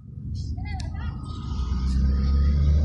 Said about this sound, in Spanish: También eh, no quise seguir grabando ayer por lo que está sucediendo precisamente en este momento, que pasan muchísimos carros y la bulla pues la capta el teléfono y siento que puede llegar a ser molesto al momento de escuchar el podcast.